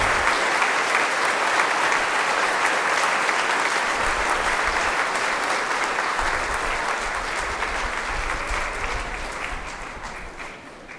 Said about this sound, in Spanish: Vamos a ver quién hizo su primera comunión. Vengan que les tenemos un regalo. Ah, vamos a darles un fuerte aplauso a estos niños y a estas niñas. Muy bien.